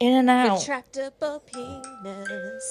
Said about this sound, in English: That's our alarm telling us to go to sleep. It never happens.